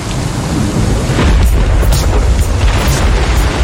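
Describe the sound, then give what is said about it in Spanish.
A loud, steady rush of heavy rain with deep rolling thunder rumbling underneath, forming a continuous stormy wash of sound with no voices, at the start of a song. “Es el inicio así con lluvia.”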